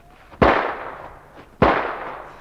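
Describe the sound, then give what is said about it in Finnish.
Two loud gunshots crack out about a second apart, each a sharp bang followed by a ringing, echoing decay, with no voices in between. “Pysähtykää tai ammun!”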